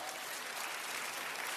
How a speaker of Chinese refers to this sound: 所以，感谢这个救命的圣灵，我们给圣灵一个掌声好吗？感谢主。